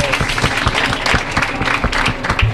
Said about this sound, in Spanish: Gracias por venir. Muchas gracias. Aplausos.